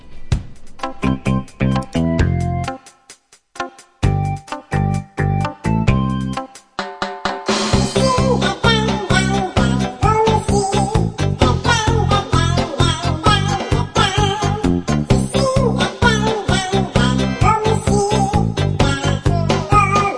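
A quirky song with odd, chattering insect-like vocals, opening with sparse, choppy keyboard notes and short pauses, then swelling into a fuller, steady rhythmic arrangement that plays loudly to the end.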